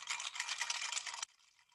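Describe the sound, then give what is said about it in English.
Ice clinks and rattles in a glass of cold gin and tonic for just over a second, a dense, bright jostling, then stops abruptly, leaving near silence. No one speaks. “I've got a delicious cold gin and tonic with ice.”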